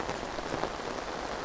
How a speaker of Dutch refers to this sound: Het wordt echt het gaat echt heel hard regenen.